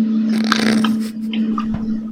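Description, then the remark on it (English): Stuff being flushed down a drain: a continuous wet rush with squelchy gurgles and crackles over a steady low hum, lasting about two seconds with no voices. “just flushing some stuff down the drain real quick.”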